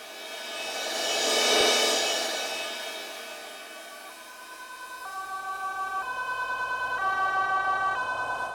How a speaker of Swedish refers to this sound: Sen, efter det som känns som en evighet, kommer ambulansen.